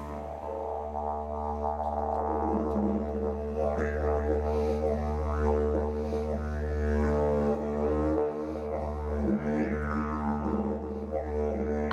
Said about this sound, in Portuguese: Ah, eu adorei conhecer o didiridu e também escutar aquela apresentação da banda de um homem só, tocando esse instrumento, mais violão, chocalho e batendo os pés no chão.